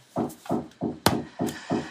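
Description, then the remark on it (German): Repeated knocking from construction work, about five evenly spaced thuds with a sharp crack among them, moderately loud, with no talking. “äh, ja, hier wird gerade im Hintergrund ein bisschen gebaut, deswegen äh, bitte ich das Klopfen zu entschuldigen.”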